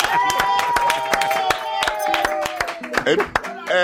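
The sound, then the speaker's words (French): Studio audience applause for Mouna Ndiaye in studio 621 of France Inter: a scattering of sharp, irregular claps, fairly loud, mixed with a sustained voice-like tone that slowly falls in pitch throughout. “On va laisser la parole à la musique, on applaudit Mouna Ndiaye”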